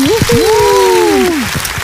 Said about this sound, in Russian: Тихо, тихо, бурные аплодисменты встречаем. Блогер, дизайнер, модель Алазар Маевский.